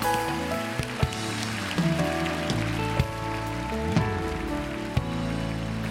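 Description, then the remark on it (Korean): An audience applauds in thanks to God in a dense, steady wash of clapping over sustained instrumental chords, with a soft thump falling roughly once per second. No one speaks. “여기까지 인도하신 그 하나님께 우리의 마음을 담아 감사의 박수 올려드릴까요?”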